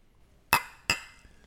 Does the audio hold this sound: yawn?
no